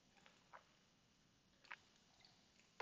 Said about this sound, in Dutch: Ik neem een slokje water.